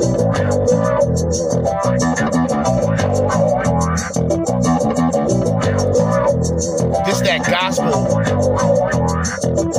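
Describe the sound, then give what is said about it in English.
A loud instrumental beat built on layered, effected keys: warm, rhythmic chords pulse steadily throughout, with no drum kit and no one speaking over it. “Some beats don't really need drums.”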